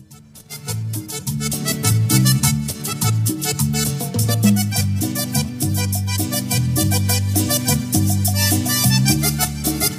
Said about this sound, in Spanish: Hasta ahora es una cumbia, así nomás, ¿no?